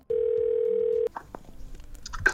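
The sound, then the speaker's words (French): A telephone dial tone on an outgoing call: one loud, steady mid-pitched hum lasting about a second, then cut off sharply, leaving faint clicks and low line noise. “Bingo, je l'appelle.”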